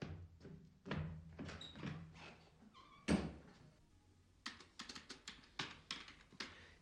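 A room door is handled and pushed shut to keep a cat inside, with a solid thump near the middle followed by a quick series of latch clicks and knocks, with no one talking.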